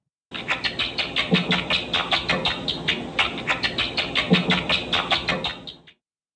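Two rats' ultrasonic chirps while being tickled in a glass enclosure, lowered to audible frequencies with a bat-detector device: a rapid, steady run of bright chattering squeaks lasting several seconds, fairly loud, with no voices.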